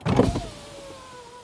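Power windows in a car whir upward, starting with a burst of motor noise, then a steady, slowly falling electric hum that runs until the end.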